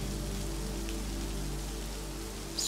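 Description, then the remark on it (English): Steady rain falls in a continuous, even hiss, pattering softly on a surface with a low background hum; no voices, just the constant wash of rainfall throughout. “swaying from side to side, the sweet scent of lavender, the sound of the rain, and the warmth of the breeze sends you yet deeper.”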